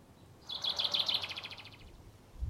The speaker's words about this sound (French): Oh, regarde l'oiseau là-bas.